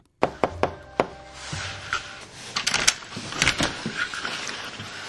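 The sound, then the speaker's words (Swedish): A quick series of four firm, sharp knocks on the front door of a home, followed by scattered clunks and rustling handling noises with a low background rumble. “För några veckor sedan så var vi till och med hemma hos handelsstudenten och knackade på.”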